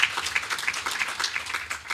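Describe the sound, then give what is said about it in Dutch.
An audience breaks into applause for Dennis van der Geest, a dense, steady patter of many hands clapping together at moderate volume for a couple of seconds, with no voices on top. “Applaus voor Dennis van der Geest.”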